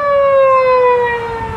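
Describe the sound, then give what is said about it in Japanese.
A loud siren of an unmarked police car holds a steady tone that slowly drops in pitch as the car speeds past with great force and pulls away, with faint road rumble underneath and no voices. “覆面パトカーがすごい勢いでき去っていきますよ”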